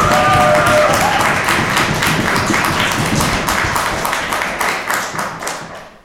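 Loud, dense applause from a crowd, many hands clapping at once in a steady rush, with a brief whistle or cheer early on, tapering off toward the end.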